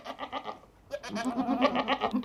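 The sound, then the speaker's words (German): Goats bleat in quick succession, several wavering, nasal calls overlapping one another, moderately loud, with a brief pause before a busier stretch of bleating. “Ziegen. Ja, genau, die mögen ihr Futter noch lieber, wenn sie was dafür tun müssen, haben Forscher entdeckt.”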